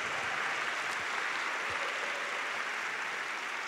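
An audience gives a loud round of applause to the Lord, a dense, steady wash of many hands clapping at once, loud and sustained with no pauses and no voices standing out.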